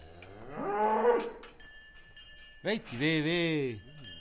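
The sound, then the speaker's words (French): A farmer calls out to his cows with two long, drawn-out, wavering hollers, loud, so low and sustained they sound almost like mooing, with a brief quiet gap between them. “Tu leur parles en quelle langue à tes vaches là hein, Pas toi Qu'est-ce que tu leur as dit Venez ici, venez”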